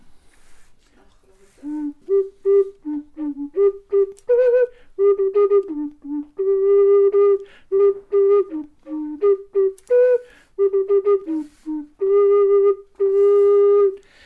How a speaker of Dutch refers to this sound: En hier was ik dus mee bezig op school, ook met de kinderen. Ze maakten allemaal zo'n eh, eigen fluit. En dan gingen we mee kwartet spelen.